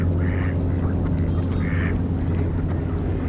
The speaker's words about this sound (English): Some ring-billed gulls calling here, lots of ducks.